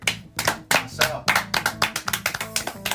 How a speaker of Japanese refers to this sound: 拍手